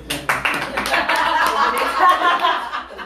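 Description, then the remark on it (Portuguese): A crowd breaks into steady, dense applause lasting a few seconds, with scattered chuckles and laughter mixed into the clapping. “Momento quando eu puxo o silêncio merece palmas, né?”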